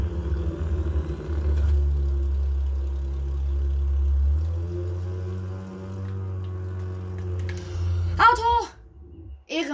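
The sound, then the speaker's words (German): A low, steady video game car engine rumble idles for several seconds, shifting pitch slightly midway, then a brief burst of voice-like sound near the end cuts across it. “mein Auto.”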